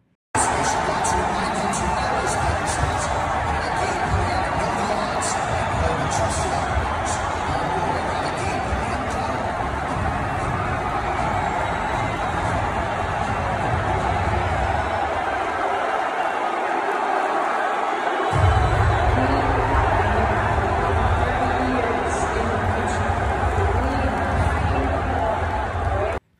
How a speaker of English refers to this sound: So if you're listening very carefully there, you can hear the crowd in there chanting USA, USA pretty there's a lot of noise in there in general, so it's kind of hard to hear. But either way what you're not hearing is a bunch of booing.